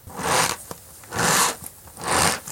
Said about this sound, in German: Speisestärke in dem Sack macht dann dieses Knirschgeräusch.